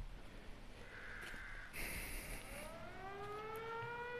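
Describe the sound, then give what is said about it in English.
A civil defense siren from town begins winding up, its wail rising steadily in pitch, after a brief harsh caw-like burst over a faint outdoor background. “That's the siren from town.”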